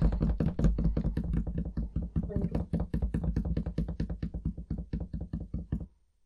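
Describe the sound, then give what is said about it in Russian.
Hands rapidly tap a surface in a steady drumroll before a coin toss, dense knocking strikes running for about six seconds at a strong level before stopping abruptly. “давай мы тогда с тобой делаем сегодня барабанную дробь.”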